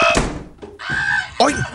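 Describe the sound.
A person tumbling down stairs: a few heavy, irregular thuds and bumps, loud and scattered over a couple of seconds, with a voice crying out over the impacts.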